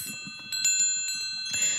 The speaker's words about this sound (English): So let's bring in the wind chimes.